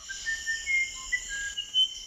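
A musician wren whistles a melodic song of clear, pure flute-like notes at varying pitches in a South American rainforest, set against a steady high buzz of insects in the background.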